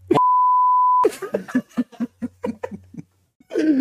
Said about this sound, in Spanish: Pero nunca, nunca voy a comprar esa marca de papel de baño. Le pones el pip.